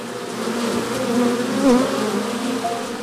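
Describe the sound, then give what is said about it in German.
A dense, continuous hum of many honeybees buzzing together at the apiary of cabaret artist and beekeeper Erik Lehmann, steady and fairly loud, with individual bees occasionally rising in pitch as they fly past. No talking. “Ja, was wir hier hören, ist keine Autobahn aus größerer Entfernung, sondern das ist der Bienenstand von Erik Lehmann, Kabarettist, hauptberuflich und im Nebenerwerb ein Bienenhalter und Honigsommelier.”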